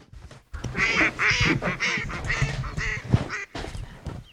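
A flock of ducks quacks loudly and almost continuously, harsh nasal calls overlapping for a few seconds with a brief gap near the end.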